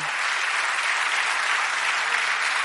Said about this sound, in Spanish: Denle un aplauso muy fuerte. Estamos en fiesta, estamos celebrando.